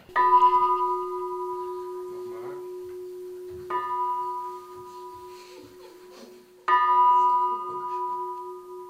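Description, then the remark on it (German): A small church bell in Aschersleben, Saxony-Anhalt, rings three times at a slow, even pace, each stroke bright and metallic with a long shimmering hum that lingers between strikes. Faint background noise and faint voices sit underneath. “Zu der Glocke können wir hochgucken.”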